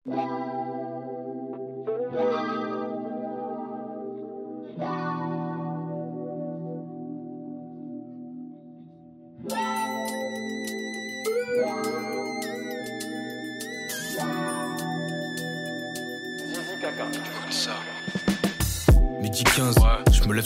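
A music track plays throughout, with sustained layered synth tones and heavy effects, growing busier and brighter midway before ending in a burst of noisy, distorted hits.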